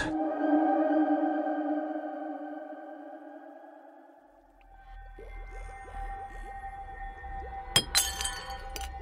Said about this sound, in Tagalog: Oh, ano yun? Parang may nabasag.